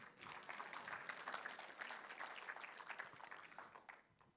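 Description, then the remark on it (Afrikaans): A crowd applauds steadily for a few seconds, a dense wash of many hands clapping at once that holds fairly even, then tapers off near the end. “Kan jy vir hulle 'n klap gee?”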